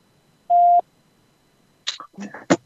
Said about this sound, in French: Bon, On si, ça fait bip, si ça fait bip, c'est que c'est pas bon.